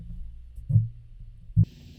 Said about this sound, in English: Let me just rotate the mic.